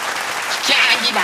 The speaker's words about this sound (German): Applaus für den großzügigen Spender, werte Zuschauerschaft. Applaus!